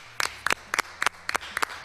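A brief round of applause for a musician guest: a dozen or so crisp, sharp claps falling in a quick, fairly steady rhythm, often in close pairs, with no voices over them.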